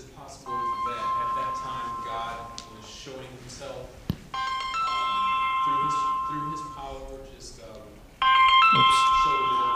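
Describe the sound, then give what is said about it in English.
A cell phone ringtone plays a bright electronic melody in three repeating bursts, fairly loud, while a person talks over it. “I'm not good at cell phones”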